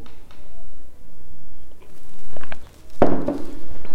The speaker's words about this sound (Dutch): Ik neem nog even een slokje koffie.